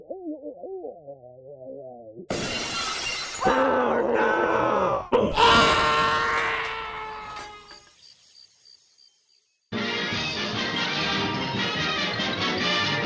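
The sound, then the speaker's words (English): A voice imitates a Sasquatch yelling: a low wavering hoot, then loud, harsh, drawn-out screams and groans, ending in a steady burst of rough noise. “Wait, play it backwards, and it's like Sasquatch yelling, and he sounds kind of like this.”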